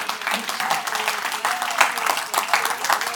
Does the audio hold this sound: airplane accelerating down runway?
no